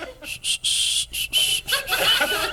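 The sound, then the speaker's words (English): Breathy bursts of air blown through the lips in a choppy rhythm as someone tries to whistle a song, with only a thin, faint whistle tone breaking through now and then, ending with a bit of snickering. “I think I speak for all the 12 and a half when I say let the wind do its job because you're not whistling at all.”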